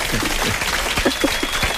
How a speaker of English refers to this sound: I think we're going to give you some more applause here again. Yes.